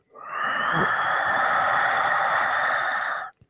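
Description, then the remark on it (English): A single long, steady breath with a hissing, ocean-like rasp, made with the throat muscles, in through the nose and out through the mouth, holding even for about three seconds before cutting off; no talking. “So that's in through the nose and then out through the mouth.”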